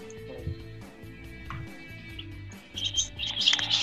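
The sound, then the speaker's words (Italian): Small birds chirp in quick, bright bursts, faint at first and then busier and louder near the end, over a low background hum and muffled rumble. “Che sento rumori di uccellini?”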